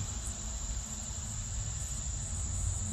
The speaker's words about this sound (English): And so as the birds chirp, crickets are sure chirping out here.